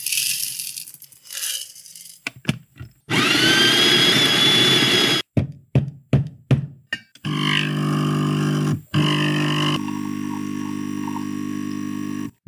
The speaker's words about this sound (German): wir haben mal ein paar Töne aufgenommen von unseren verschiedenen Kaffeezubereitungen und das ist die Siebträgermaschine